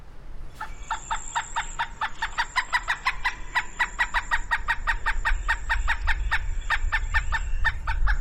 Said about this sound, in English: And now I'm going to play the pileated call, and I want you to listen to how the pitch changes and even the speed changes.